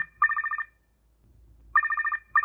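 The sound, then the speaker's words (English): A telephone rings for an incoming call in two rapid electronic trill bursts, with a brief pause between them and a third burst starting at the end, with no voices. “Okay, let's take a call”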